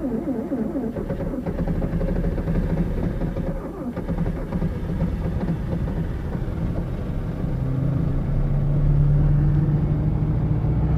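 A Volkswagen 1300 car engine, tested in winter conditions, runs steadily with a low, throbbing rumble, then revs up and grows louder and higher toward the end.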